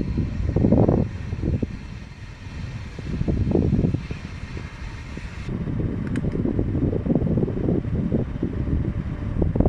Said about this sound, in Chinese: 现在是北京时间二零一九年五月二十二日晚上七点三十五分，我在出租房里，想给你听一下空调的声音。